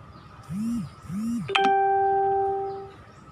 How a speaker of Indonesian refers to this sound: ada ada notif bocor pasti suaranya tuh udah biarin aja